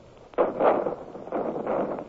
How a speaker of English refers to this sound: That's gunfire out there. Cannon! Come on, let's get back to our ships.